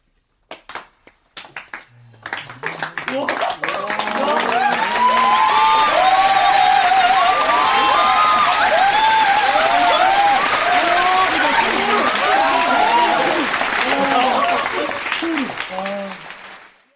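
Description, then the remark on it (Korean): A large audience at the Cannes International Film Festival breaks into sustained, dense applause after a screening of director Choi In-jung's competition film 'Byeonjil', building quickly and holding steady, with scattered cheers and overlapping voices before tapering off at the end. “칸 국제영화제 경쟁 부문에 초청된 최인중 감독의 변질이 상영욱 박수세례와 함께 현지 언론의 극찬을 받았습니다.”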